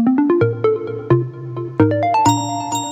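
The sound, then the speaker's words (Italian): A short, bright radio segment jingle: a quick string of plucky synth notes stepping up and down, ending in a rising run of higher chimes. It is loud and plays alone, with no voices. “è giunto il momento di quella rubrica che ha una sigla che fa più o meno così.”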